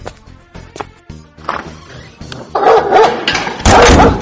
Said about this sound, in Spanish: ¡Ah, pinche perro! Nada más me está esperando.